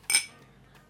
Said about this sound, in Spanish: Un último chinchín. Salud.